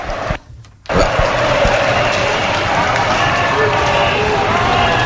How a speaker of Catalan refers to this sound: clarament eh, els estan fent els càntics de por ellos i quan veiem que la línia eh, policial una, una, de, la, de la policia espanyola està avançant una miqueta.